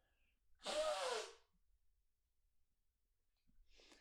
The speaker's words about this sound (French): Là, je faut que je me mouche. Bouge pas.